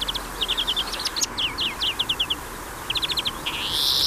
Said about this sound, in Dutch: Dit is een groenling. Dan gaat hij wat harder.